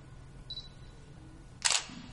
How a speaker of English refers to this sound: Oh, I have to take a photo of this plaque, otherwise.